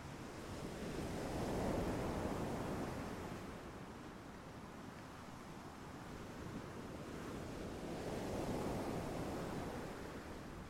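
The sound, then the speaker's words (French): Ocean waves wash onto sand and rocks in slow swells, two broad surges rising and fading over a steady background roar of surf, with no voices. “Vous pouvez entendre les différences entre la gauche et la droite, au moment où ces vagues viennent tapisser le sable ou les rochers.”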